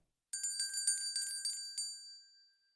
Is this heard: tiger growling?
no